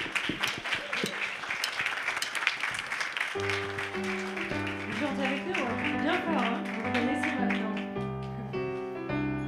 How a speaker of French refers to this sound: Alléluia faut les applaudir encore une fois.